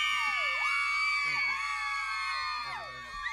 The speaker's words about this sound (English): We got the lady screaming and everything.